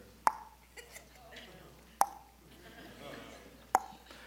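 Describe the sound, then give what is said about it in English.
A voice mimics a running dishwasher located right above a basement office, with three sharp, hollow mouth pops spaced evenly about every second and a half, fairly loud, with quiet breathy noise between them. “Guess what's right over my office? Dishwasher.”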